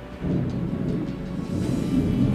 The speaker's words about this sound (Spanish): escuchas esa tormenta que hay allá afuera, un cero está cayendo.